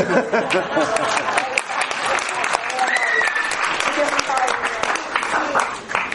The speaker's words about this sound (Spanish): Porque estoy echando en falta el aplauso en el medio.